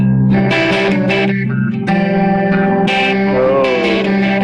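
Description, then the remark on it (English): An electric guitar plays a few sustained chords and notes through a tri-chorus effect preset, drenched in a lush, wide chorus with reverb, loud, with no talking. “I mean, not that my playing sounds like …, but I think that sound is very ….”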